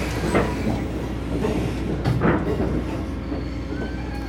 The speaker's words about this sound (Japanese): 列車は今川名駅で運転停車をしています伊豆急行線は単線の185系踊り子が通過していきました